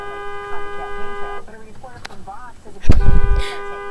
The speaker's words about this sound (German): Der fährt einen Scheiß zusammen, wird angehupt, macht einen auf dicke Ohren und dann schlägt er sich die Tür an den Kopf.